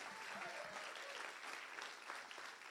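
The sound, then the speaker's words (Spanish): A church audience applauds Jesus, a steady wash of many hands clapping at once, dense and sustained for the whole stretch with faint voices mixed in underneath. “Vamos, dale un aplauso fuerte a Jesús.”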